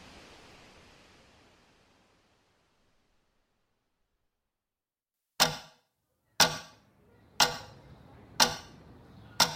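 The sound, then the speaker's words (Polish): A round clock hanging on the wall ticks loudly and steadily, five sharp ticks about one second apart, each with a short ringing decay, following a soft hiss that fades into silence. “Okrągły zegar wiszący na ścianie bezlitośnie odmierzał czas do końca klasówki z historii”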